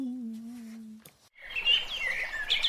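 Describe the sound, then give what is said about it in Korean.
A short logo jingle of the KBS show 댓글 읽어주는 기자들 (Comment-Reading Reporters): a steady, slightly wavering low tone holds for a second, breaks off, then gives way to a loud flurry of bright, high chirping bird-like sounds. “자 그럼 저희 로고 듣고 자 1부 커뮤 무치 뉴스 브리브리 브리핑으로 돌아오겠습니다. 로고 주세요.”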